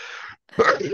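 A single loud sneeze: a breathy wind-up, a brief pause, then a sharp explosive burst trailing off into a voiced, nasal tail.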